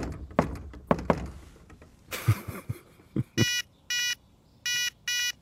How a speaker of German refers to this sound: Also du siehst, ich habe jetzt äh, gerade äh, düm düm düm düm geklopft und das Schloss hat dann äh, das ähm, repliziert.